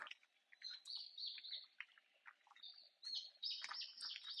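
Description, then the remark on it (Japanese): Several birds chirp and tweet continuously outdoors, recorded while a person is out walking, a busy overlapping chorus of short high calls, with no voices present. “Do you hear the birds chirping?”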